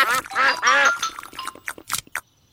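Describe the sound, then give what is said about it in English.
Ducks quack loudly, three or four raspy, nasal calls in quick succession, then fade into softer, scattered clicks and short bursts. “Oh, you are very lucky ducks.”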